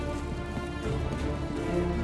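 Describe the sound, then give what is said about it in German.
Steady rain falls continuously with a dense, even hiss, joined by a low sustained hum underneath and no voices. “I hope you like the rain”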